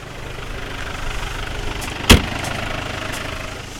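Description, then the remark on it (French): A tractor engine idles steadily with a low, rumbling drone, broken once by a sharp metallic clunk partway through; no one speaks. “Alors j'ai laissé Christian remonter dans son tracteur.”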